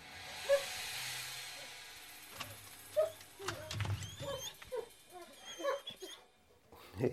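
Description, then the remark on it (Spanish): Dogs whimper and give short excited yips and barks as their owner greets them, several high-pitched calls scattered across a few seconds over a faint hiss of background noise. “Luego de saludar a sus perros”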